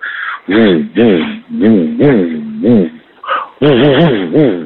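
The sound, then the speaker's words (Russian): A man vocally imitates the hum of a Star Wars lightsaber: a series of loud, buzzing tones, slightly muffled, that swoop up and down in pitch over several pulses with brief breaks between. “Ну, ну это каждый ребенок знает, как звучат цветовые мечи звезды войн. Они звучат так...”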